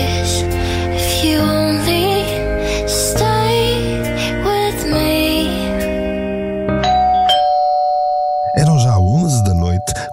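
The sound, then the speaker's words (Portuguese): An electronic doorbell rings loudly, playing a chain of sustained, stepped chime notes that shift in pitch. A short wavering vocal sound follows near the end. “A campainha berrou de novo e ele sentiu uma certa urgência,”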